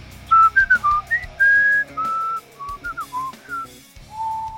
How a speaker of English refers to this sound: Ooh, I like the whistling. Oh, nice. Nobody likes whistling. Nobody but the whistler likes whistling. but I like that. It was a change of pace.